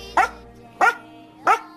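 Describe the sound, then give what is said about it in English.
A rescue dog barks three times at a steady, even pace, each bark short and loud, with brief quiet gaps between them and no talking. “Both are rescue dogs, and they've worked in film before, uh, but this is their stage debut.”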